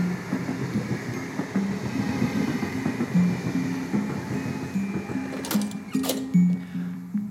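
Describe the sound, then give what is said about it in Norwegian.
A train rumbles steadily along the railway line right by an office in a brick building, with a rhythmic mechanical drone and a couple of sharp metallic bursts near the end as it passes. No one speaks. “Thomas har et kontor som ligger rett ved jernbanelinja, og det er dit jeg drar for å se om jeg kan få noen råd.”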